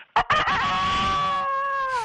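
A single loud rooster crow, opening with a couple of sharp bursts before stretching into a long, steady, slightly falling call that lasts about two seconds.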